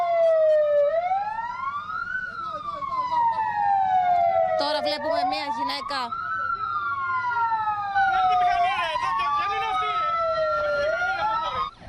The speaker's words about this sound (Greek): Σιρήνε από πυροσβεστικά οχήματα και περιπολικά ουρλιάζουν.